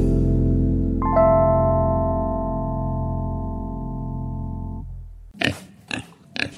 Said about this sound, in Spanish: puercos, cochinos, marranos, cerdos.